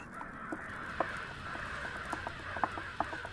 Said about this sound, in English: They brought up their heavier forces against us, the birds with larger beaks. I could hear the sound of tiny bits of wood torn away.